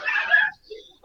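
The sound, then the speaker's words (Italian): A short, loud burst of dog barking fills the first half second, followed by a fainter yip and a brief final bark at the very end. “Dopo, scusate i cani”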